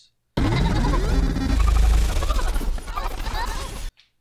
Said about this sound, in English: it's a little glitch, and so it kind of takes the audio that might have been happening and distorts it a little bit